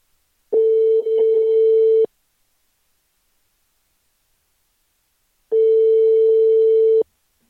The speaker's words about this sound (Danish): Så lad os prøve at se, om han har lyst til at tage telefonen.